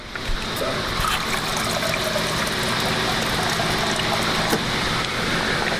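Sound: water trickling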